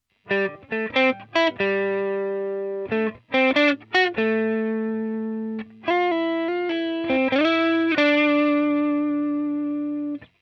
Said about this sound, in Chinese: 那比如同一段乐句轻柔触弦的时候啊，因为信号的强度小，所以音箱给出的声音呢是一个几乎纯净的轻音。